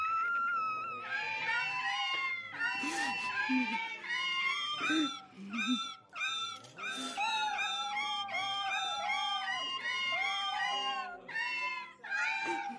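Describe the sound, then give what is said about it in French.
Several cats yowl and meow loudly in overlapping, wavering cries as keys of a cat organ are struck, seven cats boxed by vocal range with each tail tied to a key; the cries come one after another in quick succession, forming a chaotic chorus of pitched wails with short gaps. “Quand Johnny frappait une touche, le chat hurlait.”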